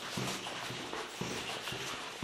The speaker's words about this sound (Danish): Det er altså ejeren af området, som også er med på nogle af optagelserne. Og hans hund.